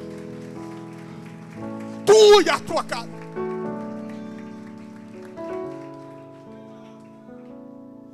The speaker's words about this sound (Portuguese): Você pode aplaudir a Deus? Pode. Pode dar um aplauso para Ele.